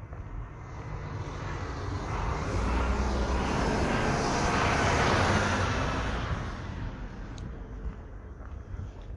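A garbage truck drives past, its broad engine rumble and road noise swelling steadily to a peak midway, then slowly fading away. No one speaks.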